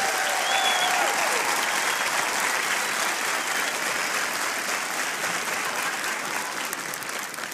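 An audience claps steadily for several seconds, a dense, even wash of hand claps that holds at full strength, then eases slightly toward the end. No one speaks over it.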